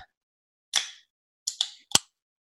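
A drink bottle cap turned with a gentle twirl and twisted open: a short fizzy hiss, two quick crackling bursts, then a sharp little pop, with silence around it and no talking.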